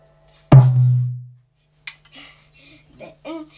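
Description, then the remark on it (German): A single tom on a drum kit is struck once, loud, its deep pitched boom ringing out for about a second before a person starts talking. “Dann kommt eine Ton.”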